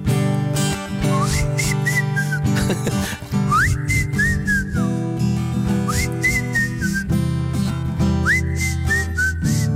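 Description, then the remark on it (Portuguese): A person whistles a bright, repeating melodic phrase over a full band backing track, the rising and falling whistle line recurring four times in a steady rhythm. “Epá, tudo bem, vamos assobiar.”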